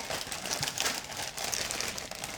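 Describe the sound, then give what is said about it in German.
Continuous crinkling of a small 110-gram bag of paprika chips being opened, steady, with bright crackly rustles throughout and no talking. “Die Tüten waren auch so kleine Tüten.”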